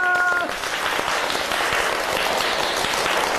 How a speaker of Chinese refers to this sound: 好棒哦，掌声！